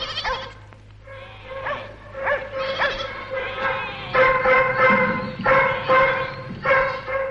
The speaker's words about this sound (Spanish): Allí encuentra a un hombre subido a una roca. Los perros le tienen acorralado.